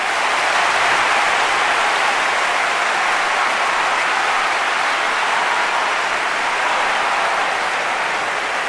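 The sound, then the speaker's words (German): A recording of sustained applause played as a dedication to a guest, many hands clapping in a dense, steady wash of sound that stays loud and even for about nine seconds, with no voices over it. “Und ähm, ja, das hier ist nochmal dein fetter Applaus, der ist nur für dich.”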